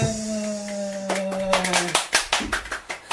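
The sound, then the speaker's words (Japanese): Thin, scattered applause from an audience of about 300 people at a Bible talk starts over a sustained tonal hum that cuts off partway through, leaving a light patter of irregular claps that never builds to a full ovation. “えー、ちょっと300人いるにしては拍手が緩いよね”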